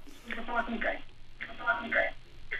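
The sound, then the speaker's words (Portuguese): A radio beside a caller in Almada, on the south bank of the Tejo, plays and comes through the caller's phone line into a radio call-in, thin and band-limited, with voices from the radio arriving in short bursts over a faint line hiss. “Peço-lhe para baixar o volume do rádio que tem ao seu lado, por favor.”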